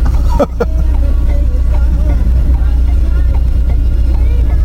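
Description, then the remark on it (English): Cars idle and creep through a crowded parking lot, a steady low engine rumble filling the scene, with a brief thump near the start and faint murmuring voices underneath. “It's like there's a traffic jam here in the parking lot, ladies and gentlemen.”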